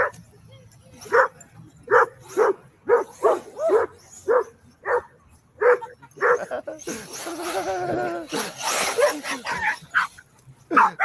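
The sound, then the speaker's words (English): Several dogs bark in quick, repeated yips and bow-wows as they playfully chase a remote control car, with a burst of excited whining and overlapping yelps midway before short barks resume. “yes, dogs having fun.”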